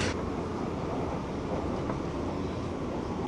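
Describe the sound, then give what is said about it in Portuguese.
A steady, dense low rumble of a metro train rolling along the tracks between Brás and Pedro II stations, heard from inside the car, loud and continuous with a broad roaring hiss and no voices. “Próxima estação, Pedro II. Desembarque pelo lado direito do trem.”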